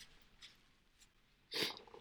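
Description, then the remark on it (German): A single loud, breathy burst of someone blowing their nose, a rough hissing gust lasting a fraction of a second, preceded by a couple of faint soft sniffs over quiet background. “Oh, sorry, du kurz meine Nase putzen.”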